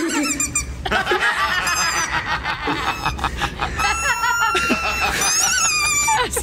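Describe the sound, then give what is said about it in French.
A young American boy who swallowed a dog toy laughs: a loud, continuous laugh that comes out as high, rubbery squeaks and honks, like a squeezed dog toy, bursting in rapid uneven pulses, with other voices faintly underneath. “Vous avez pas vu le jeune garçon américain ce week-end admis aux urgences après avoir avalé un jouet pour chien Alors tout va bien, je vous rassure pour euh, le gosse, mais quand il rit, bah ça s'entend un peu.”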